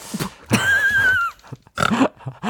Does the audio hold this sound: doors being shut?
no